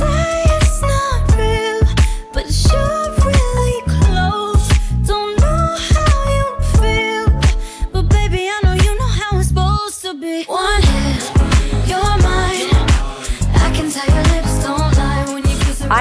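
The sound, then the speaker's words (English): A sultry, flirty pop song plays loud, with a steady punchy beat, smooth melodic lines and a brief drop-out near the middle before the groove returns. “The track, as you can tell, sultry and flirty, and I have no doubt it's going to be played over and over again this summer.”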